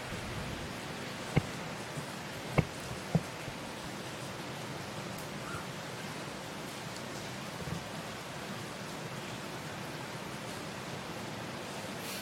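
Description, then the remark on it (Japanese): Steady, even thunderstorm rain in Singapore hisses throughout with no letup, broken by a few sharp drips or taps early on; no voices, and no clear thunder rumble stands out. “雷雨の音を聞きながら雑談”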